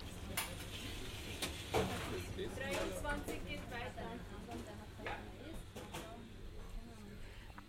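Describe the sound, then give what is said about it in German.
Busy kitchen activity: scattered knocks of chopping and clinking pots, with quick whisking and stirring over a steady sizzling hiss, at moderate volume with a faint voice underneath. “Wie sie schneiden und legen, immer mit beiden Händen. Als betten sie Existenzen. brechen sich ab mit Rührbesen, ihr Tun geht in Töpfe.”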